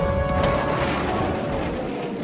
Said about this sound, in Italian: Ma gli italiani reagiscono prontamente. Un intenso fuoco di artiglieria investe le truppe tedesche, che si trovano subito in grande difficoltà.